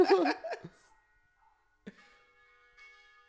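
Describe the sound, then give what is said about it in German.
A short burst of laughter gives way to church bells of the Dom zum Heiligen Kreuz tolling, with two strikes about a second apart, each leaving a soft, ringing hum that lingers. “Ist auch schön, dass Kirschenglocken, Glockenläuten, Glockengeläut, Dom, Glocken, nur 1000 Dom zum Heiligen Kreuz.”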